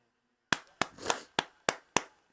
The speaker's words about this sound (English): If no, no if no no one else is gonna clap, I'll clap for you.